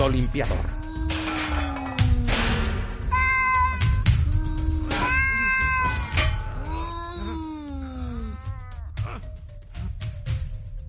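A cat meows and caterwauls in a string of drawn-out, rising and falling yowls, loud, over a steady low rumble in the background.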